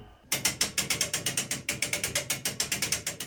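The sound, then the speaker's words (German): A fully mechanical church tower clock in the Diocese of Eichstätt being wound by hand, a man turning a crank to pull the weights up: a steady run of loud, sharp ratchet clicks, roughly six to seven per second, with a mechanical rumble underneath and no voices. “Jeden Tag dreht einer der Männer eine Kurbel und zieht so Gewichte nach oben.”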